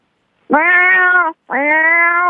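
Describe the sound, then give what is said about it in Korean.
Two drawn-out meows voiced by a person imitating a cat on request, each under a second long with a brief pause between, loud with a steady, tonal quality. “고양이 해보세요, 고양이.”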